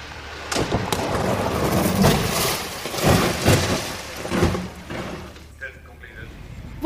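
A brand new Volvo is crashed in a test: it shoots out of a tunnel, down and over a ditch, flies about five metres into the air and hits an embankment. A loud, sustained stretch of crunching, scraping and rumbling impacts with several heavy thumps, then it settles into quieter rattling debris.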